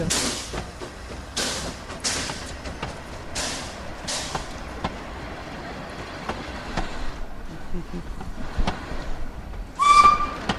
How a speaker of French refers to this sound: Direction Argy pour ce train à vapeur de notre côté.